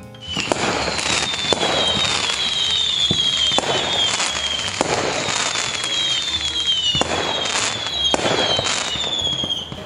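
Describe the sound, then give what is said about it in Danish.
A dense barrage of whistling fireworks on a paper witch thrown into a bonfire, all lit at once: shrill descending whistles layered over constant crackling and sharp pops, loud throughout with no talking. “Og nu hvor faren kaster papheksen ind i bålet, går der ild i heksen på et sekund, og det betyder, at alle heksehyldene bliver tændt på én gang. Det larmer helt vildt.”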